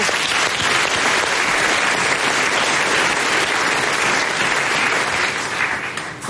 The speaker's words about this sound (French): moi je crois qu'on peut applaudir les candidats parce qu'être sous le feu de deux investisseurs comme ça, c'est pas facile, vraiment. Bravo.